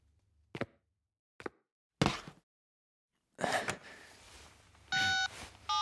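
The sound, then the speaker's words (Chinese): A phone number being dialed on a mobile phone lying on a table with speakerphone on: a few scattered keypad taps, then two short electronic beeps near the end, steady and mid-pitched, with no voices. “那应该是我这辈子按过最吃力的一次电话号码。”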